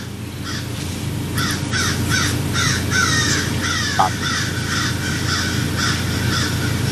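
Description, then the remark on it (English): Several crows outside a house caw repeatedly in a quick, rhythmic series of harsh calls, fairly loud over a steady low outdoor rumble, with no one speaking. “there were some crows outside of my house the other day, and they were crowing like crazy, dude.”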